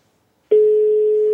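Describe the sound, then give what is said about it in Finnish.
After a moment of silence, a steady electronic telephone ringing tone of an outgoing call that goes unanswered starts and holds at an even pitch, clear and fairly loud, with no voices. “Eikö hän vastaa nyt puhelimeen?”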